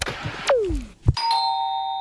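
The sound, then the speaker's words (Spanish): A doorbell rings: a falling first tone, a brief thump, then a bright sustained chime that rings on steadily. No one speaks. “Uy, ¿quién llamará al timbre a estas horas?”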